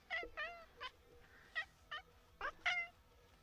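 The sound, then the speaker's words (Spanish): A cat sitting on a small stool used for recording meows repeatedly in short, rising-and-falling calls, about eight quick chirpy meows in a row, fairly clear, with no one talking. “Tengo aquí a mi gato Leo, que me está quitando el sitio del banquito para grabar. Creo que quiere decir algo.”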